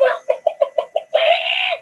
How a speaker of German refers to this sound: Hühnergezwitscher